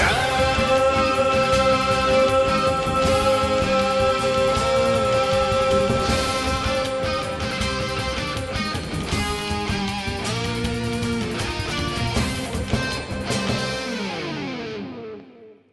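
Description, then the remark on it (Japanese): A loud, dense song with distorted, effects-heavy instruments plays continuously during a break without talk, then cuts off quickly in the final second. “えー、休憩の曲が終わりました”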